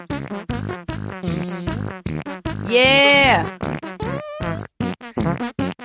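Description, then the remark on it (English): A goofy tune built from rapid, rhythmic fart noises, loud, with buzzy squeaks and a long wobbling blurt in the middle; someone briefly speaks. “It is time for the fart song.”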